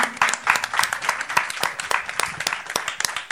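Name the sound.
audience applause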